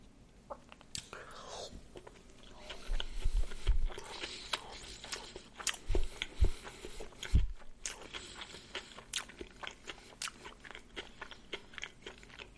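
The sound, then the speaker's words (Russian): Loud chewing of sushi rolls: a run of crisp crunches and wet mouth clicks at an uneven pace, with soft whispery breaths in between. “Он так и ест, как будто это не суши, а столовое харючево.”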